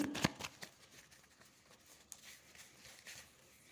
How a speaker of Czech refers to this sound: Tak moment. Já už míchám karty.